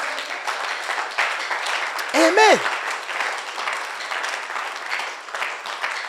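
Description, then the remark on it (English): A church audience claps for the Lord steadily and enthusiastically throughout, a dense wash of many hands, while a single voice calls out briefly partway through. “Somebody clap for the Lord.”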